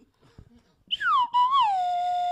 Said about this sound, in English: You want a slide whistle after that? Yeah, sure. Go ahead. I'll give him a slide whistle. He ah. deserves it.